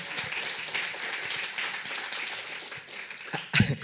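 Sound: audience applause and clapping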